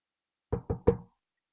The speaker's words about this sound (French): On cogna à la porte.